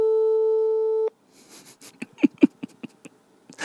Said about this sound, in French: Ah, par contre, il faut qu'il me réponde. Eh, euh, Vous entendez ou pas l'appel